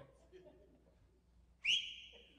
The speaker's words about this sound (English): She, she'll make you jump if you're too close. You're like, That's an anointed whistle.